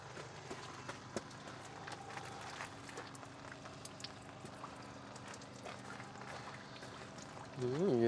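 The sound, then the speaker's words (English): Feet splash through a shallow rain puddle in a run of irregular, wet slaps and sloshes, and a voice briefly rises at the very end. “splash in the puddle.”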